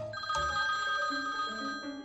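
A telephone rings with a steady, bright tone that warbles continuously for a couple of seconds, clear, with no talking over it, as a call is made to the Blindinstituttet about getting a white cane.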